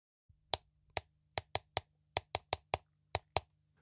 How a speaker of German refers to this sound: denn als er im nächsten Augenblick die Augen wieder öffnet, da hört er ein seltsames Klopfen.